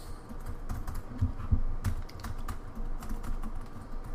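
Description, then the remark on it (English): Repeated clicks of laptop keyboard keys, including the function and Alt keys, being pressed in quick irregular bursts over a low background hum as someone tries to bring up anything on a dead laptop screen, with no one speaking. “How about the alt keys?”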